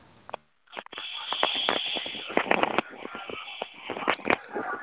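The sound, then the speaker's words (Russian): A radio call-in caller from Samara crunching a cucumber on the phone line: a steady run of loud, irregular crisp crackles and snaps that fill nearly the whole clip after a brief pause, with no talking. “У меня, я не пойму, хрустит огурец, по-моему, Миша.”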